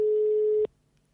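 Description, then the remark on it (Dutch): A single steady telephone ringback tone, heard while a phone call is being placed, a plain mid-pitched electronic beep lasting about two-thirds of a second before cutting off sharply into near silence. No one speaks. “We hebben een leuk geluidje, in het piepje elke keer.”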